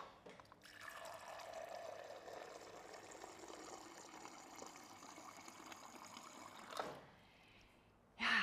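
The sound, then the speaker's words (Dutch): Water pours steadily into a glass for about six seconds, fairly loud, then stops; a brief knock and a sharp clatter follow near the end. No one speaks. “En ehm, even water pakken.”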